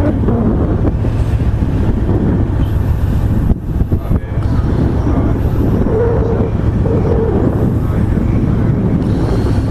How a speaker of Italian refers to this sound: E ora procediamo paralleli alla costa Ligure e ci muoviamo in avanti. Sentite che si è alzata anche una brezza da terra.